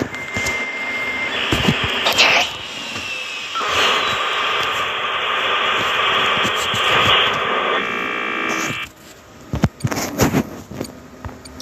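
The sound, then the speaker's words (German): A steady electric whirring hum from an electric fan drones on for several seconds at a fairly loud level, with a thin tonal whine layered on top before it cuts off, followed by a few faint clicks. “Okay, ich mach mache meinen Vent leiser. Mein Ventilator halt.”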